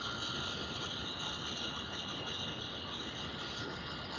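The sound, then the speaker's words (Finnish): A computer fan whirs loudly and steadily, a continuous rushing hum with a high whine on top that never changes for the whole few seconds, with no voices. “Se on tää helvetikone, kone. Kurise.”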